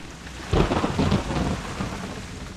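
A low rumble of thunder swells about half a second in and rolls on for a second or so, over a steady hiss of falling rain that continues throughout.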